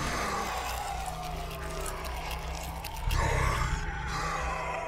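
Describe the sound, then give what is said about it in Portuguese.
A voice imitates a washing machine with a steady, low, rumbling drone held for several seconds. It is fairly loud, with a rougher, stronger surge toward the end. “Fica fazendo. Uns barulhos assim.”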